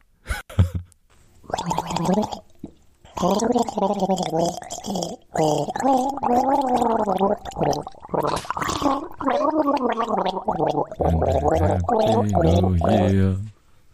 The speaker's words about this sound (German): wir hören nochmal in, in … okay. ähm, gurgel rein